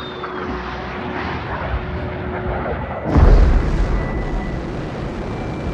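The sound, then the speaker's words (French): The Bell X-1 rocket plane, flown by Chuck Yeager after being dropped from a bomber in 1947, roars steadily, then breaks the sound barrier with a sudden, deep boom about halfway through. Its loud rumbling engine noise continues afterward. “Il passe le fameux mur du son en 1947.”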